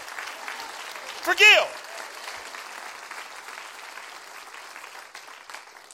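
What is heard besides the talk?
audience clapping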